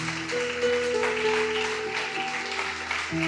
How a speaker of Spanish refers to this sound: Junte sus palmas. Dele fuerte el aplauso a Dios. Fuerte, fuerte el aplauso, fuerte, fuerte.